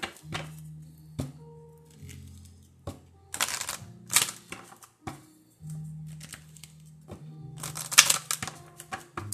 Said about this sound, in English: Okay, I'm doing a um I'm shuffling my angel reading cards. I felt like I needed to do a reading, an angel reading right now.